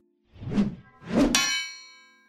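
Two soft rushing swells lead into a single bright metallic chime that strikes once and rings out clearly, its shimmering tone fading over about a second. No one speaks.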